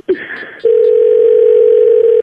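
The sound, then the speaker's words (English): A steady, loud telephone dial tone hums continuously for nearly two seconds, preceded by a brief burst of clicks and higher beeping tones as the line is picked up to place a call. “All right, so we're going to call her now and you're going to do all the talking, okay?”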